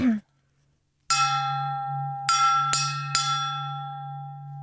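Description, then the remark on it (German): A singing bowl is struck four times, first alone, then three quicker strikes, its deep hum and bright overtones ringing on continuously between hits. “Das wäre mein Klangschalen-Soundtrack zu uns.”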